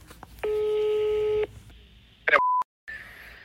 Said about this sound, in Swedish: vi har fått tag i hans nummer så vi tänker att vi ska se, vi ringer honom och ser om han, om han svarar. För jag tror att han kommer... Höj ljudet som man hör.